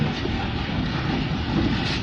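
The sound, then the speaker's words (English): A loud, steady roar of strong 25 to 28 knot wind buffets a sailboat on a rough sea, reefed down to two reefs in the main and one in the jib, with a dense low rumble and hiss filling the whole two seconds without pause, no voices over it. “We've got about 25, to 28 knots of breeze. We're down to two reefs in the main and a reef in the jib.”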